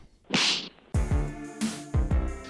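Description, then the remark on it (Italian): A quick whooshing swipe followed by two loud, sharp slap sound effects, each ringing with a falling, resonant tone. They are punchy and spaced about a second apart, with no talking. “andiamo allo schiaffo della settimana.”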